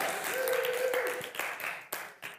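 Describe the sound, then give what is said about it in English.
An audience in a church applauds in a dense burst of clapping that gradually thins to a few scattered, sharp claps, with a short sustained whoop-like voice tone early on. “So it's good to laugh in church and it's good to applaud.”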